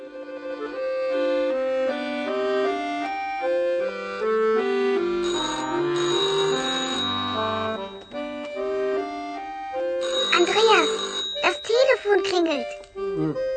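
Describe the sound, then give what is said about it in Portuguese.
A melodic electronic telephone ringtone plays steadily at home for several seconds as a tune of stepped tones, just as someone starts eating, followed by a short burst of a child's voice. “e justamente quando começou a comer, o telefone tocou.”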